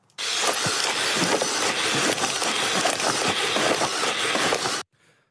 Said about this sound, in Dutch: En we gaan eh, nu naar de Zebro, want die is ook op de Dutch Design Week te bewonderen. Een modulaire zespotige looprobot. En die klinkt zo.